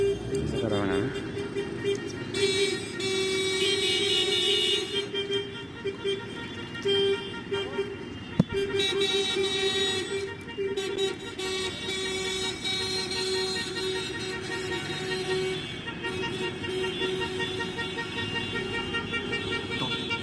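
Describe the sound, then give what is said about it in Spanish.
A campaign-closing caravan parade of the Partido Nacional political party in Uruguay: cars honking their horns almost nonstop, several overlapping toots and long blasts over a rumble of engines and a crowd of voices, loud throughout. “Acá estamos, es el desfile de la caravana de cierre de campaña de un del partido político, Partido Nacional eh, de Uruguay.”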